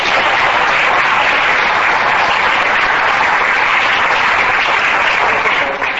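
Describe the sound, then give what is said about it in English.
Sustained applause from an audience thanking a speaker after a talk fills the whole stretch, a dense, steady wash of many hands clapping at once, loud, with no voices standing out. “All right, let's thank Alex.”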